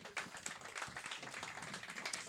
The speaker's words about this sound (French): Une bonne main d'applaudissements, encore une fois.